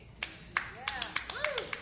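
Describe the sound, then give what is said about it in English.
A few scattered, half-hearted claps from a church audience, sparse and irregular rather than building into applause, with faint voices murmuring underneath. “Oh, I know that's a weak clap.”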